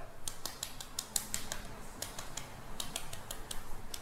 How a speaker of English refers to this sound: And that, that air pocket helps the uh, egg uh, be slightly easier to peel. So I'm just gonna try peeling one.